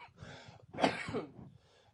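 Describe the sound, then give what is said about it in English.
A few dry, harsh asthma-related coughs that bring nothing up, in quick succession and fairly loud, with a throaty clearing quality and brief breathy gaps between bursts; no talking. “What's worse is I'm not coughing up anything, so this is all like asthma related coughing right here, I think.”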